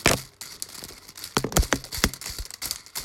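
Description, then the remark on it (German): Close-up plastic clicking and rattling as a toy's propeller rotors are turned by hand, a quick irregular series of sharp crinkly ticks with brief pauses and no talking. “Ich habe hier nämlich noch so einen Propellerschnatz, bei dem man so die äh, Rotoren bewegen kann.”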